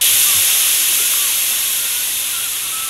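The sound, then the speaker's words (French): A steady, loud hiss of escaping steam, like a steamboat venting, holds for about three seconds with no pauses and fades slightly toward the end. No one speaks. “Et autre chose qu'on aime faire nous les hommes c'est être sexiste comme lorsqu'on compare la vapeur d'un bateau avec les vapeurs d'une femme.”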